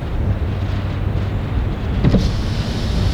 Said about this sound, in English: The window buzzed as it slowly opened to reveal bright red lights of the interior lighting from the inside of this car.